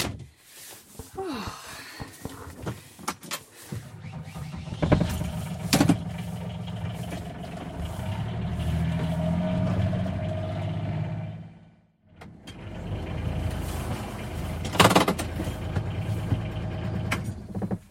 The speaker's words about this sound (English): Right, so I've loaded up the back of the gator. Now, time to drive down to the house the rain has just started coming down.